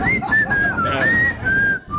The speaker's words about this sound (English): Fine. Walk away whistling. I can still hear you. I'm on the other side of the street. You're the loudest, worst whistler ever. It's like 40% air. It's not even a song.